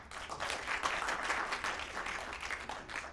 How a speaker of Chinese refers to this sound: 这三弦儿结得好，大家给这贤师鼓鼓掌，这是真的。